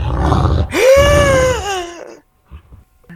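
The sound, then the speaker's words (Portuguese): A loud roar from a chimera, a creature with a goat's body, a lion's head and a serpent's tail, in a clearing: a rumbling growl swells into a long, strained howl that bends upward then slowly sinks and fades, followed by a few faint rustles. “desceu uma criatura com corpo de bode, cabeça de leão e o, ah. o rabo de serpente e lançou um rugido.”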